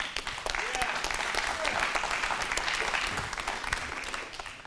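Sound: audience hand clapping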